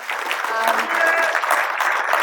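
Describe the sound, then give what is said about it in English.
An audience claps steadily in a dense, sustained round of applause, with faint voices and a few whoops mixed into the noisy patter throughout. “Could we have one more round of applause for their um,”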